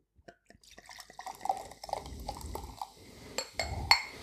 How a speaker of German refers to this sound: Ich werde die erstmal einschenken. Farbe ist auch sehr schön hier.